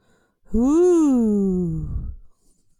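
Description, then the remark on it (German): A person softly imitates a howl with one drawn-out vocal tone that rises, then slowly sinks and fades, lasting under two seconds. It is quiet, with no other sounds. “Ich glaube, das war das schlechteste Heulen aller Zeiten.”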